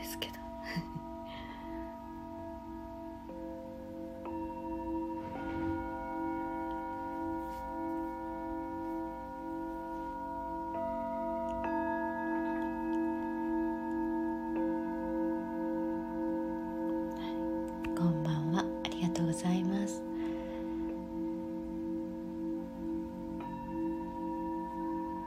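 Singing bowls ring in a sound-healing session in Mexico, with long, steady sustained tones, new strikes layering fresh overtones every few seconds; the resonant hum stays fairly loud, with a brief faint scrape or murmur near the end.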